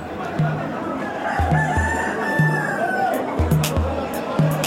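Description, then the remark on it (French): Roosters crow repeatedly at a cockfighting arena in Timor after midnight, over a busy background of crowd babble and clucking, with the crows rising and falling in long strained calls amid a noisy, bustling outdoor scene. “je passe près d'une arène de combat de coq.”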